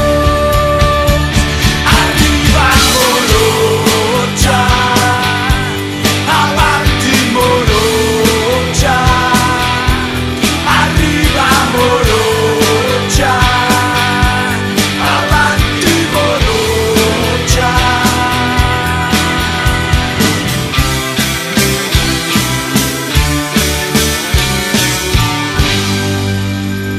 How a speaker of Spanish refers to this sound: Así termina un temón de los caballos de la quema que hace rato no escuchaba